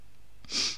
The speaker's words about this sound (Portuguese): Santinho, obrigado.